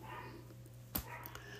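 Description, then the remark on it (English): A dog gives one short, sharp bark somewhere in the background, standing out briefly above a steady low hum; otherwise the scene stays quiet with no talking. “And I apologize if you hear my dogs barking in the background.”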